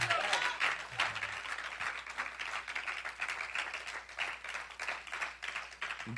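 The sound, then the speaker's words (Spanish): A church audience claps steadily, giving applause to Christ during a sermon, a dense wash of many hands applauding together throughout, fairly loud, with faint voices mixed underneath. “Aleluya, denle un aplauso a Cristo por eso.”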